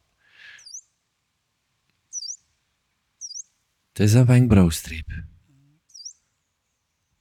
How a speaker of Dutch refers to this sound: prachtig vogelke. En eh, dit is een filoscoop, hè, zoals ze zeggen. Dus de geslachtsnaam is Filoscopus, vandaar dat vogelkijkers wel eens spreken over een filoscoop.